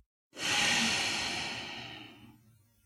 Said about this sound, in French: Maintenant, prenez une grande inspiration par le nez, en remplissant aussi le haut des poumons. Retenez votre souffle. Puis soufflez par le nez.